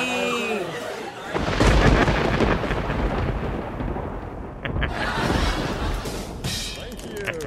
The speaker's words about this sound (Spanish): ¡Oh, los truenos!